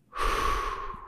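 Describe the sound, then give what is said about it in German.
A single slow, deep, relaxed inhalation drawn in steadily through the mouth during breathing-technique practice, fairly loud, a breathy hiss lasting about a second with no talking. “Ich muss vielleicht noch ein bisschen mit der Atemtechnik üben, so ein bisschen, äh, dass, dass ich nicht zu angespannt irgendwie die Luft anhalte oder sowas, sondern schön entspannt einatmen und”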